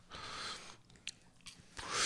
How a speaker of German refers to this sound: Dann bist, du, bist, du, bist du einer, der ein KitKat abbeißt oder? Nee, ich breche das durch.